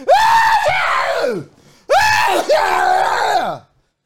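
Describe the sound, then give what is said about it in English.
A voice imitates a super loud sneeze twice in a row, the way the speaker's family sneezes, each a long, strained, almost screaming burst that trails off in falling pitch, very loud. “everyone in my family sneezes like super loud”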